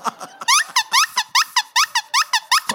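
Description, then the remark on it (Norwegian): A bagpipe squeals while being tuned: about a dozen short, shrill, rising notes in quick, uneven succession, loud and piercing, almost like an alarm, with no talking. “der gikk alarmen, hørtes det ut som. Det var bare sekkepipa.”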